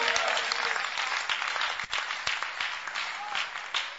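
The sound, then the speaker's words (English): An audience claps steadily during a sermon on God's enduring mercy, a dense wash of many hands with some sharper individual claps standing out, fairly loud and continuous for about four seconds with no clear talking. “Those who are clapping, more mercy, enduring.”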